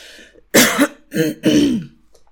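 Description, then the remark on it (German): A person clears their throat several times in quick succession, fairly loud, with harsh rasping bursts separated by short pauses and no speech. “Ich muss mich noch einmal ganz kurz räuspern.”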